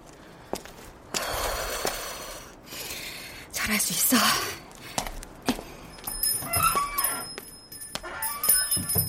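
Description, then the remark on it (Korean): A bell hanging on a shop door rings as the door is opened at 11 p.m., with bright, high jingling tones that linger for a few seconds, following shuffling footsteps and rustling movement. “문에 달린 총이 경쾌하게 울렸다.”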